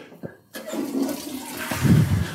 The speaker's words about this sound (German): Hört man die Spülung jetzt?